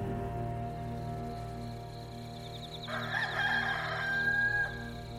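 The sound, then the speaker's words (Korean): A rooster crows at dawn from far away, the sound coming over a mountain under heavy dark clouds, one drawn-out call rising over a steady low hum of background noise, with no voices present. “닭들이 새 회를 운다.”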